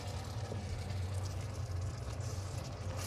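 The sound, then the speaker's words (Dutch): A steady, soft sizzling hiss of store-bought jarred stock poured into a hot pan with onions, continuous and fairly quiet, over a low droning hum like a kitchen extractor fan. “Nou, je hoort het al sissen.”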